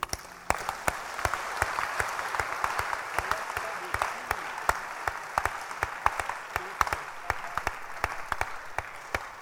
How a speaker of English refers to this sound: You can clap your hands if you want to clap.